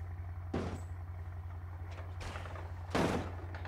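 In a video game, a car door is wrenched off with a heavy metallic clunk, followed by a few lighter rattles and a second loud crunching thud, all over a steady low engine-like hum.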